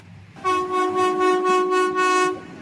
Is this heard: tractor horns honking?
yes